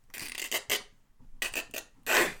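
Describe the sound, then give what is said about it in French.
A hand rasp scrapes in a series of harsh, gritty strokes as an aviator repairs the wing of an old airplane while flying: a quick burst, a pause, then more strokes ending in one louder drawn-out rasp, clear with no talking. “D'une main experte, l'aviatrice attrapa un outil, et euh, tout en maintenant le cap, en prit de réparer son aile,”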